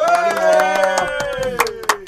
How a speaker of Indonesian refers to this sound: Wah, keren banget tuh. Tepuk tangan dong buat.